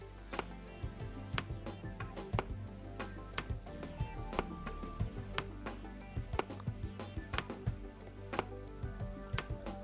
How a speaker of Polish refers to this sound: Klock. Mamy też zegar. Zegar pracuje dziwnie. Proszę posłuchać.